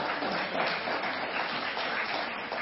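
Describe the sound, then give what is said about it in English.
An audience claps steadily, a dense, crackling wash of many hands that holds at an even, moderate loudness for a few seconds without pause or speech. “you can clap if you want”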